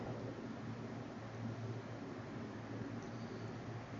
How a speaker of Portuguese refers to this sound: Vocês devem estar tá escutando mais o ventilador.